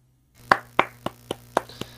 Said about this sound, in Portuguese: Uma salva de palmas.